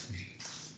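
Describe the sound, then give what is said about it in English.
A brief, soft rustling with a dry, scratchy texture, quiet, with no one speaking. “Oh, I heard you rustling.”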